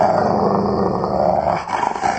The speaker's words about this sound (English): Fact is, a lot of people hear that every single day, and it's scary. Could be your own dog is taking over your life. When it gets that far, when your dog is growling or nipping at you,